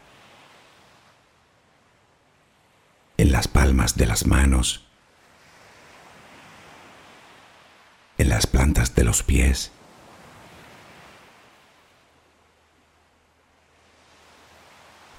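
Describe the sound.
Gentle sea waves wash in and out in slow, soft swells, a steady hushing wash beneath two brief passages of a person calmly speaking a guided relaxation for sleep.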